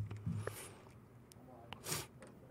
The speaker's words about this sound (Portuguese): Tô fungando aqui com minha doença no microfone, vocês ouvem, né? Você tá com Covid? O que, que você tem? Não, eu tô, eu tô, tô gripado.